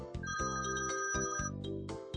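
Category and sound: household object, old telephone ringing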